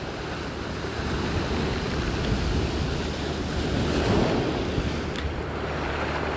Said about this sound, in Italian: prova a vederti proprio lì di fronte al mare. Questo mare è bellissimo, immaginatelo come lo vuoi. Un cielo azzurro, queste onde che sbattono a riva, questo sole meraviglioso che ti bacia.